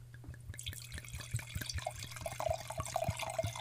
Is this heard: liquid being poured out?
yes